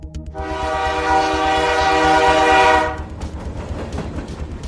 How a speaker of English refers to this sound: the train kicks into gear and starts moving its way down the circular track